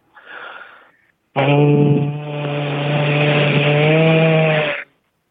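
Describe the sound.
A voice imitates a flying drone as an entry in a sound-imitation contest: a short breathy whoosh, a brief pause, then a loud, steady buzzing drone with a strong harmonic hum held for over three seconds before cutting off.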